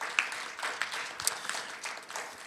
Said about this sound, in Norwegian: Wow! Det der er bare gull, og det er verdt en applaus. Absolutt.